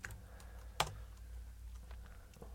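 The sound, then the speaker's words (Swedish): Quiet typing on a computer keyboard with a too-small Enter key: scattered soft keystrokes at an irregular pace, with one sharper, louder clack early on, over a low background hum and no talking. “Det beror på ditt knasiga tangentbord alldeles för liten enterknapp.”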